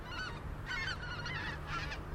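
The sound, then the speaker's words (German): Flocks of geese pass by, honking repeatedly in overlapping calls over a steady low outdoor rumble of wind or traffic, with no voices, beside a country road with fields on both sides in Bunde, among many wind turbines, as the sun sits red just above the horizon. “Ein paar Vogelschwärme, die vorbeiziehen.”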